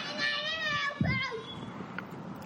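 A girl's high-pitched, wavering shriek rings out for about a second and a half, then trails off into softer background noise.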